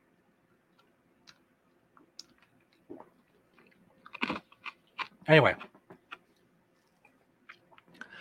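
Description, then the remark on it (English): Loud crunching as ice is chewed in the mouth, with sharp irregular cracks and crackles clustered in the middle, plus a few scattered clicks and a brief spoken word. “sorry for chewing ice during a podcast, but I don't give a fuck.”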